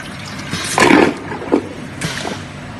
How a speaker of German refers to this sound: Okay, kurze Auflösung des Rätsels. Das erste war eine Vakuumtoilette, was so gesaugt hat, und das zweite eine Ökotoilette, ein bisschen gequietscht.